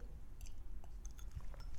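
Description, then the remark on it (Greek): Someone quietly takes a sip of wine: soft wet mouth sounds and small swallowing clicks, ending with a brief sharp tap like a glass being set down. No one speaks. “μισό λεπτό να πιω μια γουλιά κρασί γιατί δίψασα, μιλάω πολύ.”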